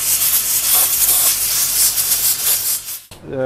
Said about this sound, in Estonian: peale talla puhastamist jätkame siis vastavalt sellele pealismaterjalile, kas täiskäsipesuga või siis, kui materjal on selline natukene auru kannatav või niiskust kannatav, siis me jätkame ka selle auru, auru puhastamisega